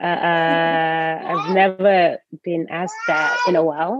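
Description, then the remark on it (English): A young girl, the speaker's daughter, cries in a long, drawn-out wail that fairly loudly overlaps an adult talking in a home office, with the whining continuing in bursts between the speaker's halting words. “My daughter is also here for those listening.”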